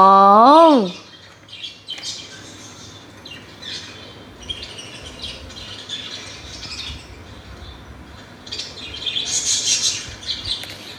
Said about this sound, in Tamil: ஒரு கேஜில் இருக்குது அதனோட அழகான சத்தத்தை கேட்கலாமா இங்கே பாருங்க கலர் கலராக லவ் பேர்ட்ஸ் எவ்வளோ அழகாக சத்தம் போட்டுட்டு எவ்வளோ சந்தோஷமாக சாப்பிட்டுட்டுருக்கு பாருங்க